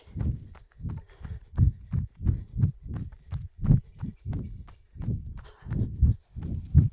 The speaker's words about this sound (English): Breathing a bit harder because I'm running. A bit faster, that's good. Hear my feet hitting the ground a bit harder.